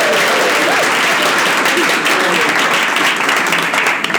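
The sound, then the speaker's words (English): Sustained applause from a live audience of about 50 people, a dense, loud wash of many hands clapping steadily for about four seconds, with a few faint voices mixed in. “No, applaud from the audience.”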